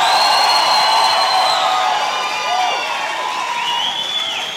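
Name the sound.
audience shouting and cheering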